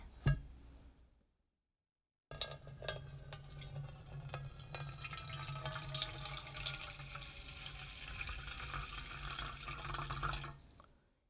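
After a brief silence, water from a small meltwater waterfall beside a glacier in Iceland rushes steadily into a small basin for about eight seconds, a continuous splashing roar that cuts off abruptly. No one speaks.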